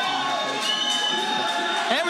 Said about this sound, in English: got a smart guy in the ring because the Grindhouse is cheering for Cameron Stewart. They want that free shirt. Yeah. CMS. See, who cares if he doesn't have a win yet? He's still one of the most popular guys here.